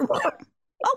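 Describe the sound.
A voice imitates a tape rewinding with a fast, garbled, chattering burst, then a brief pause and a second short burst, fairly loud.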